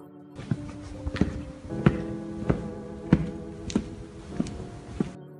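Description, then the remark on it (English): Heavy footsteps, drawing nearer, thud at a slow, steady walking pace, around nine dull, distinct impacts over a low, constant droning hum with no talking. “Suddenly, they heard a loud clang in the distance, accompanied by the sound of heavy footsteps.”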